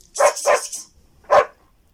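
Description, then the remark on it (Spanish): A dog barks, two quick barks in a row, then a pause and a single louder bark. No one speaks. “¡Venga acá, perrito!”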